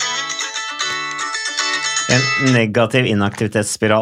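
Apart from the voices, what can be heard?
mobile phone ringing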